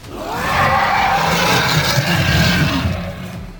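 dragon roar sound effect

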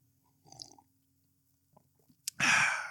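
sipping coffee

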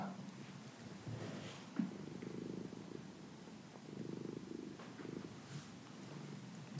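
cat purring

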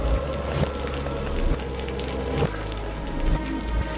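storm with rain

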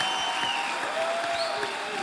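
audience applause

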